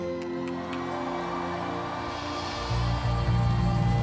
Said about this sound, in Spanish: ¿Cuántos me dicen, pastor, estoy seguro? Pero dígalo fuerte, diga, estoy seguro. A ver, de, de nuevamente un grito, nuevamente.